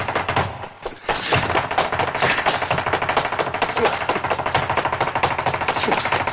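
Rapid flamenco footwork stamping by a woman dancing beneath the stairs: a dense, driving rattle of sharp heel and toe strikes, loud and nearly continuous, with a brief break early on before the fast rhythm resumes.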